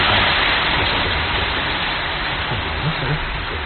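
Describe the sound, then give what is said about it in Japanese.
Steady, dense cold rain hisses outside without a break, a loud, even wash of falling water, with a faint murmur of voice briefly showing beneath it near the end. “ちょっとひょっとして音が入っていますね外が冷たい雨が空に降れたんですガラガラガラって”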